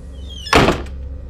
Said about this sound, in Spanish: Vi cómo jalaron la puerta desde dentro. Escuché cómo se cerró con fuerza.